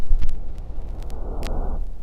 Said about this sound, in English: it's basically it's a lot of white noise or pink noise, and suddenly in the midst of this static, there's usually speech.